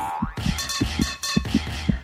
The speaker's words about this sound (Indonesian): Detak jantung pun tak karuan, sulit diprediksi.